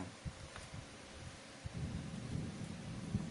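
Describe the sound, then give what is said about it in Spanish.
Low, rolling thunder rumbles steadily, swelling louder toward the end, with a faint hiss of rain in the background and no voices. “¿Esos son truenos o es el culo”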